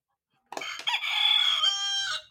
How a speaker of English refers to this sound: Use your barnyard buzzers and buzz in for this animal home quiz.